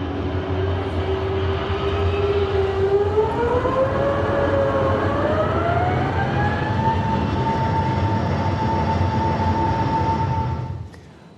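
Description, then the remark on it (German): An airplane's jet engines spool up for takeoff on the runway: a loud, steady roar with a whining tone that climbs in pitch over several seconds, then holds high before cutting off abruptly. No voices. “Mit Line-Up heißt es raus auf die Startbahn, clear for Takeoff, klar zum Start, Triebwerke und Abflug.”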